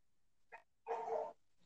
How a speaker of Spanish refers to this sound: creo que le está ladrando el perrito y no, no escucha